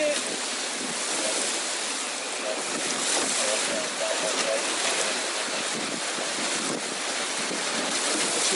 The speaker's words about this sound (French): 35 nœuds de vent à peu près. Voilà, j'ai juste deux riz dans la grand voile. Le bateau, il avance tout seul à 10 nœuds. Et il fait des petits surfs magiques.